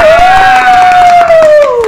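Steady clapping with a loud, sustained high-pitched cheer or whoop held over it for about two seconds, briefly rising then dipping at the end.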